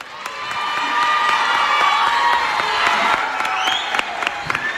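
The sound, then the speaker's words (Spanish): A large group of about 400 children, gathered right after lunch while their workshops are paused, cheering and applauding together as a round of applause for Valladolid; high-pitched shouts and whoops over a steady patter of clapping, with sharp individual claps standing out near the end. “es que ahora mismo, es que como justo después de ya del almuerzo, se han parado los talleres y están todos los niños aquí, los 400 niños.”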